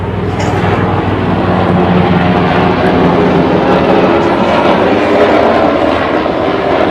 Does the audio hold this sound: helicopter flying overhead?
yes